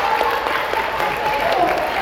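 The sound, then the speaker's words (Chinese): An audience breaks into steady, dense applause, many hands clapping together in a continuous wash of sound that stays fairly loud for the whole two seconds. “好，来，现在给点掌声吧。”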